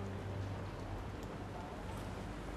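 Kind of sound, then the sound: nature, rain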